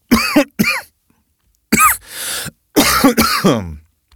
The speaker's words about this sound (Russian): Сори, что тебе приходится слушать мой кашель, но Извини